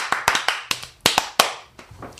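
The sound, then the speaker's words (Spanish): Repeated applause: around nine sharp, crisp hand claps in an uneven rhythm, some landing in quick pairs, each ringing out briefly before the next, with no talking. “Que serían aplausos repetidos.”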